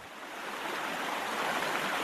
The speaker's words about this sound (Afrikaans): Ons kan die rivier toe gaan nie, so kom ons bring die rivier na ons toe. ja, ek gaan die geluid van die rivier speel.